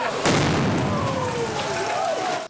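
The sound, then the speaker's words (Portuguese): A sudden loud explosion from explosives that a gang of bank robbers left at the door of a bank branch bursts out, followed by a sustained roar of rumbling, hissing noise that continues for a couple of seconds, with faint wavering tones underneath. “Durante todo o dia foram recolhidos materiais destruídos por conta da explosão: restos de alumínio, vidros.”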